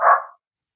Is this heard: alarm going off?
no